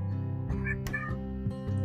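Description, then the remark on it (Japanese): A cat meows loudly and insistently, calling out, a few drawn-out calls running together in quick succession, with no one talking. “私ちょっと今猫が なんかみやみや泣いてて時折 ミュートにしてましたごめんなさいなんだほら 聞こえた大丈夫、うん、にゃにゃにゃがにゃがにゃってそうちょっと猫がなんかさっきからバタバタしてるので”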